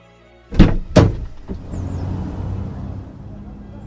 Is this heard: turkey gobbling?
no